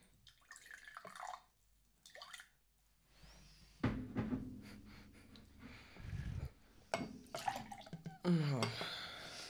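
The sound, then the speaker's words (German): Rooibos tea is poured into a cup, a steady trickling splash lasting a few seconds, with light clinks of crockery and brief quiet voices before it. “Soll ich den einschenken? Ja, mach.”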